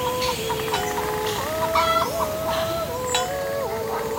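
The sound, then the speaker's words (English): Several chickens cluck and murmur continuously, their short rising and falling calls overlapping over a steady, hissy outdoor background. “All I have to do is add a calm breeze, some cowbells and chickens clucking, maybe a singing voice in the distance, and voila, you're there in the Swiss Alps.”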